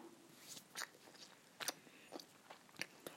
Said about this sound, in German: Alter, sorry, aber ich schmatze irgendwie die ganze Zeit beim Essen.